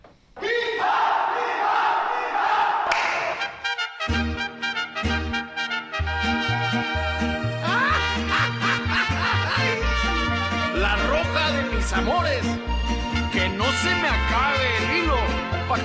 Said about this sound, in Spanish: Si te parece, vamos a escuchar el himno del primer equipo.